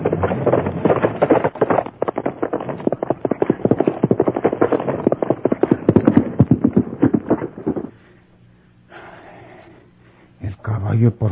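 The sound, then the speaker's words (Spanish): The hooves of a dapple-gray horse clip-clop in a rapid, steady rhythm, loud for several seconds, then give way to a quiet low hum before a brief clatter returns at the end. “Acuérdate que Porfirio trae su caballo tordillo.”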